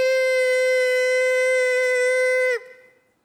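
A single loud, steady electronic beep tone holds unbroken for about two and a half seconds, then cuts off abruptly, leaving a brief fading tail. No voices.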